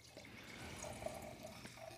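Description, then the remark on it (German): A drink is poured into a glass: a steady, soft splashing stream with faint ringing tones as it fills, quiet, with no talking. “Und äh, gerne noch einschenken.”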